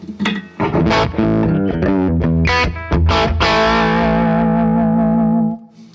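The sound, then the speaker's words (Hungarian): A heavily distorted electric guitar played through a diode amplifier plays a short riff of chords and single notes, then lets a final chord ring out and sustain before cutting off. Loud and gritty, with no talking. “ez önmagában a diódás egy”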